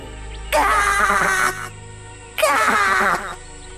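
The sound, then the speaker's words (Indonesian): Two loud, harsh crow caws, each about a second long, separated by a short pause. The raspy calls stand alone with no talking. “Burung gagak rakus itu telah menghabiskan semua ikan tangkapanku.”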